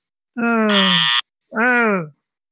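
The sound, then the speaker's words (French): A loud game-show wrong-answer buzzer sounds twice, marking a caller's wrong answer in the listener call-in game 'le jeu du tambour': a harsh, droning blast with sagging pitch, a brief pause, then a shorter second blast. No voices are heard around it. “A priori, le bip le bip du tambour on est sans appel et ce n'est pas vous qui avez gagné le jeu du tambour.”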